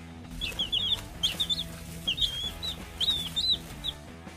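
Chicks cheep and cluck in quick, high-pitched bursts that repeat throughout, with a soft steady tonal backdrop underneath and no talking.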